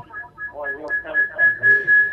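A shrill, steady feedback whistle caused by a caller's radio rings on a phone line, flickering at first and then holding continuously and growing louder, while a muffled voice talks underneath.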